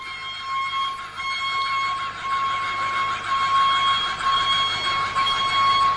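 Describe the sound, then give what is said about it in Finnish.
An old-fashioned blasting machine, wired to the blasting leads, is cranked by hand to charge its capacitor. It gives a continuous, fairly loud high-pitched whine with a buzzy mechanical edge that holds steady and grows slightly louder, a whistle signalling that the blast is ready. No talking. “Ja nyt ruvetaan veivaamaan positiivia tällä tavoin.”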